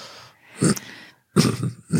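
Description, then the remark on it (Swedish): A sharp, audible intake of breath before speaking, followed by a couple more short breathy bursts with brief pauses between them. No one speaks. “Du andas in.”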